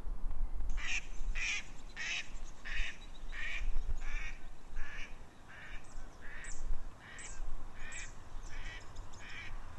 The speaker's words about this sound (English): there's some ducks down here by the, the lochside, so I just played a little mallard tune on my app and see if I can get them to respond.